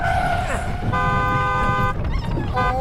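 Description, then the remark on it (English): A car speeding out of control with its brakes out roars along with a loud low rumble while its horn blares in two long sustained blasts, the second cutting in after a brief break; frantic voices are faintly mixed in. “You have got to stop the car. The brakes are out.”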